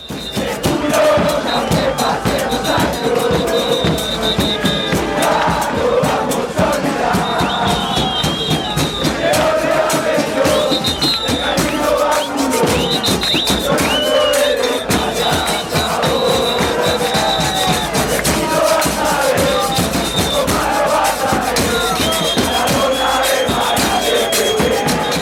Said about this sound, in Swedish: Här är det en- enormt långa ramser och det är vacker skriven text och fyndig och det finns gliringar och det finns hyllningar och äh, det, det är så här ramsorna ska vara.